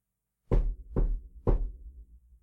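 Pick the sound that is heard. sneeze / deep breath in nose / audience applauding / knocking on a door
knocking on a door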